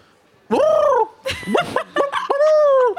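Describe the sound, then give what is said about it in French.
A human voice imitates a turkey's gobble: a drawn-out warbling call, then a quick burst of throaty, gargling sputters, ending in another long wavering note. It is loud. “Et ce, truc-là de CNews, si tu rajoutais juste des bruits de dindons à la place des animateurs, mhm.”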